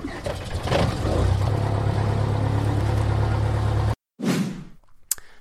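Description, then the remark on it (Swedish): A small airplane's engine, primed with a fuel pump, cranks and catches, then runs with a loud, steady drone before cutting off abruptly, followed by a brief whooshing sound and a sharp click. “Så, då ska vi se om den hoppar igång.”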